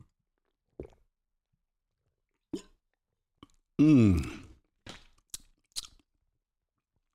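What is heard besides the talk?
sipping hot water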